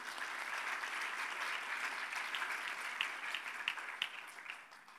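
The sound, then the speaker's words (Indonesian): An audience applauds for Jesus, a dense wash of many hands clapping at an even loudness, with a few sharper individual claps standing out toward the end. “Berikan tepuk tangan bagi Yesus Tuhan kita.”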